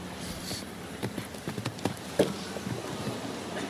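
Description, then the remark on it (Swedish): Horse hooves pound across a show jumping arena in a quick, uneven galloping rhythm of soft thuds, with one sharper, heavier impact partway through over a steady background hum; the only Swedish horse in the final, bred by Sören Savgren, ridden by Jens Fredriksson competing for a medal. “Enda svenska hästen i finalen här, uppförd av Sören Savgren.”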